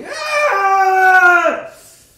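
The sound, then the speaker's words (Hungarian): A single loud anguished scream holds a strained, high wailing pitch for over a second, then cracks and sags downward as the voice breaks and fades out. “ordít, mint a fába szorult féreg, szinte elcsukló hangon,”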